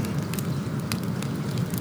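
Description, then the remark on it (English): A motorcycle, a Dyna, burns in a scorching desert, its oil and gas on fire, with a steady, low roar broken by scattered sharp crackles and pops. No voices are heard. “He was under his motorcycle, and now he and the Dyna were alight, burning like a morbid bonfire in the middle of this scorching desert.”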